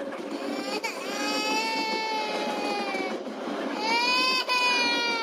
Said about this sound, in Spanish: O sea, este tipo estaba llorando por placer aquí en televisión nacional.